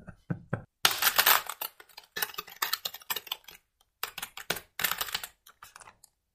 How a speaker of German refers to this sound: oh, jetzt habe ich das Gefühl, du hast ein ganz langes Wort gesucht. Äh, ja, obwohl ich sehr, sehr lange getippt habe. Das Wort ist eigentlich ganz äh, kurz.